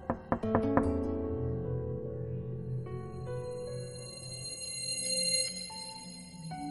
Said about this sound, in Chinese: 而就在他昏死的一瞬间，他家的房门。又被敲响了。